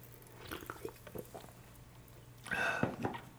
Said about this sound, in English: Probably because I'm drinking this seltzer water.